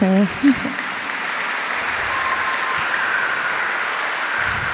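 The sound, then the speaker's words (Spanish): An audience breaks into sustained applause, a dense steady wash of clapping hands lasting several seconds after a brief spoken word at the start. “Vamos a darle un aplauso también a”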